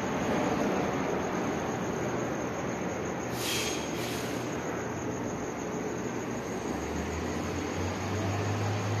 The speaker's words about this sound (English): That's the sound of the airplane flying directly over the exhibit hall San Bernardino, where I'm located, um, next to the convention center of San Bernardino, next to where the Radisson Hotel used to be, across from where the Harrison Mall used to be